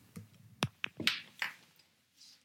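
A studio door being closed: a short sequence of handle clicks and soft thumps, five or so sharp knocks over about two seconds, fairly quiet, with no talking.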